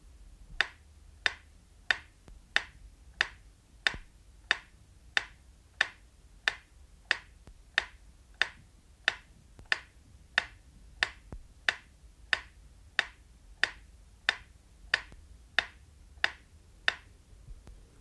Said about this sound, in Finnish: Ja nyt vielä varmistuksen vuoksi metronomin tikitystä, jonka pitäisi kuulua vain oikeanpuoleisesta kaiuttimesta.